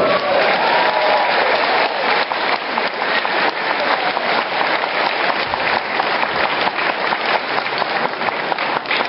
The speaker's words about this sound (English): Uh, can I have a huge round of applause for Paul McGann, the Eighth Doctor?